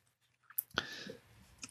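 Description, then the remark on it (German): A single short slurp of mineral water, sharp at the start and then trailing into an airy, wet hiss. Quiet, with no talking around it. “Ja, Getränk der Folge, du schlürfst schon dran.”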